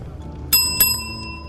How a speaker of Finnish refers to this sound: Runokoppi. Vaan. Mä menen sinne. Ää, eli kelloa soittamalla.